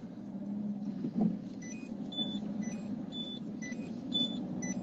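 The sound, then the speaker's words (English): A car horn sounds a string of short, high-pitched beeps, irregularly spaced and shifting between a couple of pitches, over a steady low engine rumble, with a brief thump early on. “That's me beeping.”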